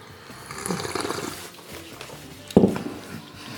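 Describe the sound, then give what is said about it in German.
An airy slurp of hot tea drawn in for about a second, then after a short pause a brief, sharper sip. No one speaks. “Tee muss man schlürfen.”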